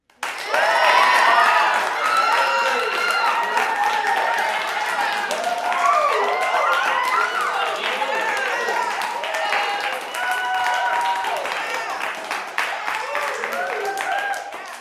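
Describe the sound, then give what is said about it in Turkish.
A crowd applauds steadily for about fifteen seconds as audience members who reached their personal goals applaud themselves, the dense clapping mixed with many overlapping voices calling out and cheering, staying loud throughout before tapering slightly at the end. “Valla yapanlar varsa gerçekten şu anda kendilerini alkışlamalarını istiyorum.”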